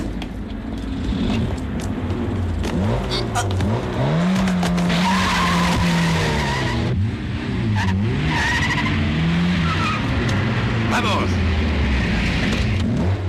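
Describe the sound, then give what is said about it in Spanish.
Loud car chase from the opening of the 1979 film Perros Callejeros 2, with cars that have no V8 engines: engines rev and whine up and down while tires skid and squeal in repeated bursts, continuous throughout, with a voice shouting briefly over the din. “Hombre, estos coches como el Mustang no suenan, también No suenan como el Mustang, no teníamos V8.”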